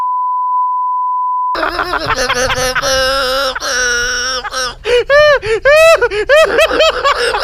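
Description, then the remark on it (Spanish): A steady, single-pitched censorship bleep holds for about a second and a half, then cuts off as loud, animated voices break in, talking and laughing over each other. “¿Por qué lo tuvimos que censurar?”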